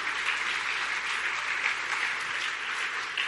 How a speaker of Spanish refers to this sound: ¿Cuántos pueden decir amén? Dele un buen aplauso nuevamente a mi Rey. Aleluya.